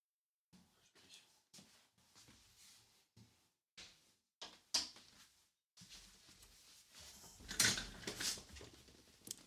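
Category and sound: household object, door opening or closing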